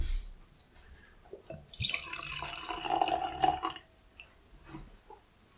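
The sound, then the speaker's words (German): Liquid pours from a bottle into a glass for about two seconds, a gurgling splash that swells and then tapers off, with a few faint drips and clinks before and after; the first pour of a cloudy drink. “Oh, den interessanten Sound, die Flasche.”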